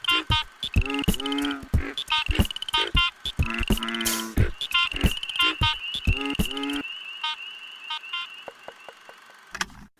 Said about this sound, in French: il enregistre des sons d'une espèce en voie de disparition. La grenouille Plectroella exquisita. Le cri de ces grenouilles est nécessaire à la reproduction. L'idée est simple, l'enregistrer et le diffuser pour espérer sauver cette espèce.